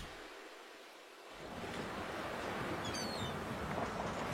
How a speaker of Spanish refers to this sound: Entonces digamos que se empieza a subir la marea, ¿no?